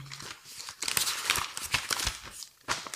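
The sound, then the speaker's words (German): Pages of a paper calendar being leafed through: a quick run of crisp rustles, crinkles and swishes at an uneven pace, moderately loud, with no voices over them. “Warte mal, ich muss meinen Finger anfeuchten.”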